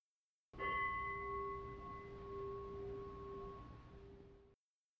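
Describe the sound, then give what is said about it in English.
A meditation bell is struck once to end a meditation, its clear, steady ringing tone with bright overtones sustaining for about four seconds before cutting off abruptly. No one speaks. “And when you're ready to come back, hit unpause and we'll hit the bell to end the meditation or whatever”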